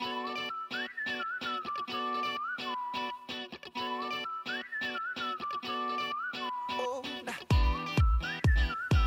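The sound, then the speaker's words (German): A catchy pop melody whistled clearly, its notes rising and falling in a repeating phrase over a steady backing track, with punchy beats kicking in near the end. “Pfeifen ist immer ganz gemein.”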